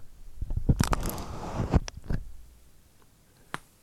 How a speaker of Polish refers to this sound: Więc zrobimy teraz taki eksperyment, tylko muszę zdjąć sobie gąbkę z, z rejestratora. Zaraz o niej powiem. I teraz rozstawię mikrofony.